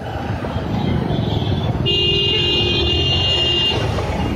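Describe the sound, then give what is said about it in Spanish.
Dense city traffic jam rumbles steadily while a car horn blares in a long sustained honk midway through, over the constant roar of engines. “Coches, atascos, humo, tumulto de gente, todo es negro.”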